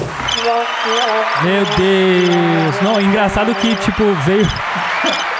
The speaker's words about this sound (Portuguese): A mesa, gente, caiu no chão. Esse barulho que vocês ouviram foi da mesa caindo no chão.